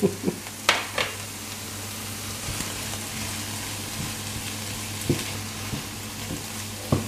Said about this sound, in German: So oh, ein bisschen köcheln lassen.